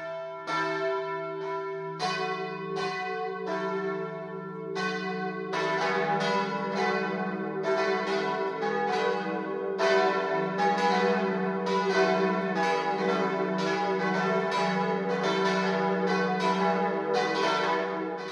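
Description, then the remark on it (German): The four bells in the tower of the church in Moosinning, in the Erdinger Moos, Upper Bavaria, Germany, ring the 12 o'clock midday peal, several bells striking in a steady, overlapping rhythm with a sustained low hum beneath bright metallic strikes, loud and continuous with no voices. “Das Mittagsläuten kommt heute aus Moos-Inning im Erdinger Moos in Oberbayern.”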